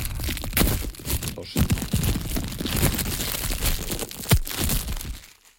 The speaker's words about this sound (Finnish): Jes, vedä sieltä pakettia auki. Se on muoviin pakattu tällä kertaa.